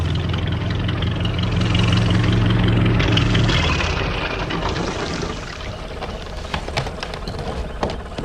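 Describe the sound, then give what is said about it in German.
A small boat engine idles with a low, steady hum and chugging harmonics, then slows and fades as the boat pulls in at a jetty, leaving faint water sloshing and light knocks near the end. “Da legte ein kleines Boot am Steg an.”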